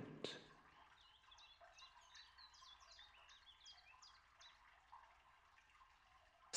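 Seagulls cry in a steady series of short, high calls, overlapping and repeating at a quick pace against a faint background hush. No one speaks.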